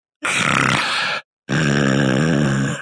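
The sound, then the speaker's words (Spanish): A man who fell and was knocked unconscious snores loudly and raspily, two long, harsh, throaty breaths separated by a brief pause, with no talking. “El güey cayó, se desmayó y, y se quedó roncando, güey.”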